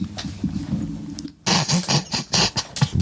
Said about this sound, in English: over here eating a bag of chips